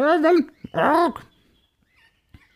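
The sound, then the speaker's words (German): A person imitates a parrot's squawk with two loud, strained, warbling vocal calls in quick succession, followed by near silence and a brief click at the end. “Okay, Papagei, ähm, …, wo geht's denn hin?”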